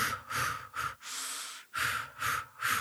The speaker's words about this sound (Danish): altså lave sådan nogle korte pust, eller et eller andet i den